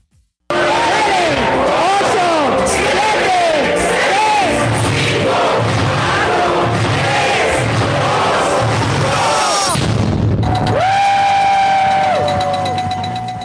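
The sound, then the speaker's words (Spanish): A loud, dense crowd claps and cheers with whoops and whistles at the Bolsa Institucional de Valores as the energy company Cox Energy goes public, a steady rhythmic pulse running beneath. Near the end a sustained ringing tone sounds over the continuing noise. “Bueno, la dama de rojo que está aplaudiendo y se ve tan entusiasta es María Arisa.”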